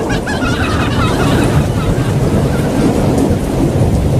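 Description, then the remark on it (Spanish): Heavy rain pours down on Avenida Paulista in a dense, steady roar with a deep low rumble underneath, loud and constant throughout with no pauses. “Aquí, por Avenida Paulista, grave está lloviendo. Terrible está, centro.”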